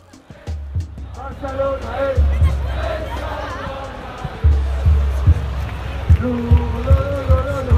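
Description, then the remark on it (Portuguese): A loud football stadium crowd in Barcelona, the organized supporters' section of Barcelona, chants and sings together over a dense roar, with heavy bass drum thumps pounding in a steady rhythm throughout. “A gente está aqui do lado da torcida organizada do Barcelona.”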